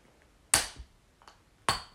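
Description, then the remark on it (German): Two sharp, bright metallic clacks about a second apart, with a soft tap between them, as someone works at prying the cap off a beer bottle. No one speaks. “Moment, ähm, beide macht sich gerade ein Bier auf.”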